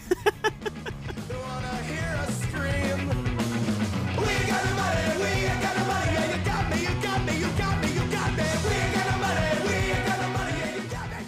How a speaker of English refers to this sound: so i wrote so punk all caps screaming fast punk another 30 second song